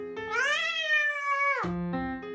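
cat meowing

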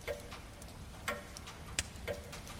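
ticking of a clock

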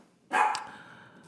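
dog barking

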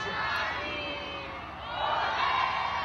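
crowd shouting and cheering

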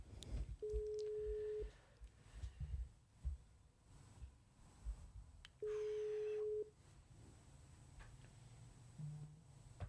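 phone ringing unanswered

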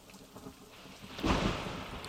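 heavy rain with thunder

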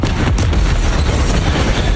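massive explosion

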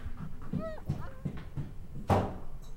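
dog barking and panting

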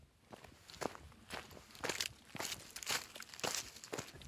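footsteps walking

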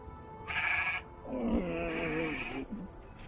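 goats bleating

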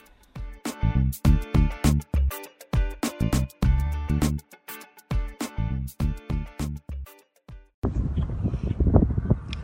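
wind blowing outdoors

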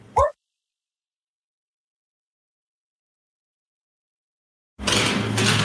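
dog barking

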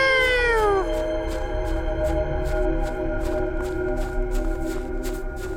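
cat meowing

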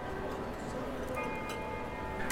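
grandfather clock chiming

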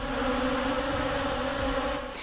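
swarm of bees buzzing

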